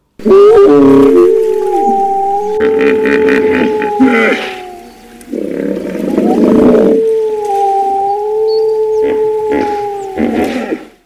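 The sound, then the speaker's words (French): Long, wavering wolf howls overlap and sustain, broken up by loud, rough hippo grunts and honks that burst in several times. The layered calls fill the whole recording with no talking. “C'est l'histoire, ce sont les loups. C'est du vécu, ce sont les hippos. On va faire un petit mix encore.”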